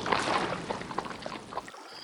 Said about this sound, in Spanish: Las olas rompen en la playa solitaria y los cowboys galopan por las praderas.